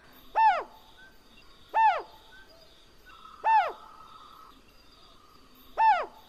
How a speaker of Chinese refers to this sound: 首先就是第一个菱角鸮。